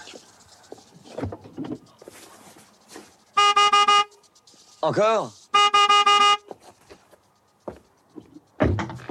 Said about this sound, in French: Si votre nana est rhabillée, on peut lui demander de déplacer la sienne. Euh, klaxonner